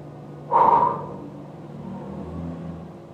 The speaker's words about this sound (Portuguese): Assim que você escutar o barulho do sopro, e nesse barulho do sopro, todas as suas memórias serão excluídas agora.